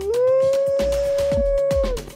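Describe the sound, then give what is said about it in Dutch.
A single long, steady wolf howl rises at the start and holds one clear pitch for about two seconds before dropping away, with soft low thumps pulsing underneath. “En een Limburger stond anderhalf uur lang oog in oog met een wolf.”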